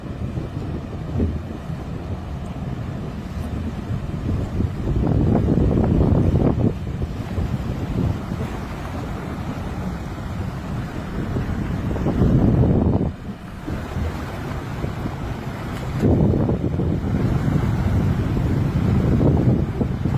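A fishermen's boat out on the high sea of the Gulf of Santa Clara rides open water as waves slap and surge around it, with heavy wind buffeting the microphone in loud, continuous gusts and a low rumbling drone underneath.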